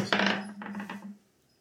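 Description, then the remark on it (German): A hard twenty-sided die clatters across a tabletop, a sharp first impact followed by a few quick bouncing rattles before it settles; fairly loud, with no voices. “Ja, aber der würfelt jetzt in 20 um”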